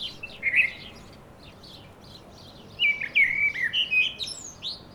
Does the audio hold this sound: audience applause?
no